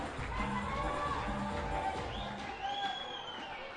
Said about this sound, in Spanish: Ah, hombre, Cubetero se lleva los aplausos aquí en la fortaleza.